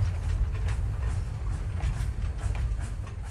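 A train runs along the rails with a heavy, steady low rumble and a faint, irregular clatter of wheels over the track, evoking the 1968 train carrying 15-year-old Xi Jinping west to Shanxi in central China. No one speaks.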